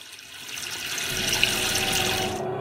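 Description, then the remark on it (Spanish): Water runs steadily from a tap in a broad, hissing stream that swells slightly over a couple of seconds, then cuts off abruptly at the end. No voices are heard. “Evita lavar los trastes de tus alimentos bajo el chorro de agua sin cerrar la llave.”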